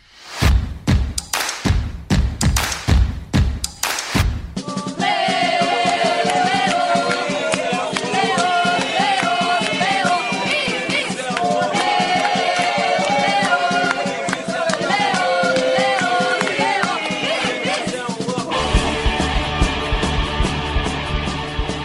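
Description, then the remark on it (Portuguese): The anthem of Ibis Sport Clube, a Pernambuco football club: a handful of loud, spaced drum hits open it, then a full, steady musical arrangement with a sustained melodic line plays loudly to the end. “Esse hino que você acabou de ouvir é do Ibis Sport Clube, conhecido por ser o pior time do mundo.”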